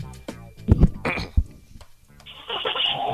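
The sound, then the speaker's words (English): A car engine cranks and starts up, its rough, steady rumble rising and continuing to the end, after a moment of muffled voices and bumps at the start. “starting up the car.”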